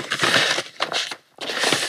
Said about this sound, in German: Der Mann vom Radio holt jetzt mal das Papier raus, um es mal zu kommentieren und reicht es ähm, an den Gast weiter.